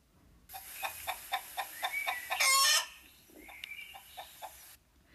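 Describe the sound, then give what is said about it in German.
Chickens cluck in a quick series of short calls, broken by a brief loud rooster crow in the middle, followed by a few more scattered clucks; fairly loud, with no talking. “Was haben denn Hühner mit Yom Kippur zu tun?”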